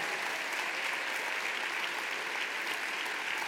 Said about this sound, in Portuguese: Nossos adolescentes estão chegando. Um aplauso para eles, né?